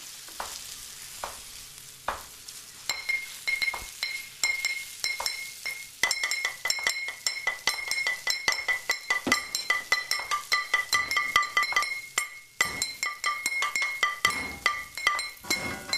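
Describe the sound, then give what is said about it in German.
In a kitchen, plates, spoons, a pan and old glass bottles clink and ring in a steady, busy clatter of quick taps, with a constant sizzle of frying food hissing underneath throughout. “Hier gibt's Teller, Löffel, eine Pfanne, alte Flaschen, einen Ofen, brutzelndes Essen”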